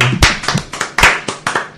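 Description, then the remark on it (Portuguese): A handful of sharp hand claps, about six or seven, in a quick, slightly uneven rhythm, fairly loud, with no voices over them, applauding to congratulate someone. “Uma salva de palmas.”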